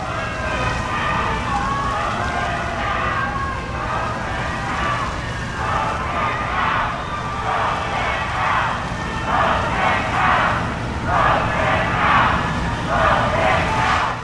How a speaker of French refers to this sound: présente, pas nécessairement énorme, mais qui a été assez bruyante et qui s'est fait remarquer par les médias sur place parce que Donald Trump, alors qu'il était là masqué avec euh, sa femme Melania Trump, s'est fait huer. Euh, voici ce que ça donne.